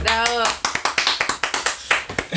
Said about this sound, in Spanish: Un aplauso, por favor.